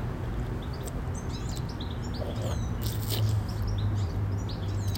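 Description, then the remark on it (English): A goldfinch's bubbling song of rapid, twittering chirps runs continuously, set against a steady low outdoor rumble. “So that bubbling song over there is the goldfinch.”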